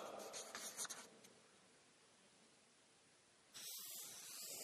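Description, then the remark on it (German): Writing the words 'sitzen und hören' on a board: a quick run of scratchy strokes, then a lull of faint noise before a steady, brighter scraping hiss takes over. “Ja, schreibt man hin, sitzen und hören.”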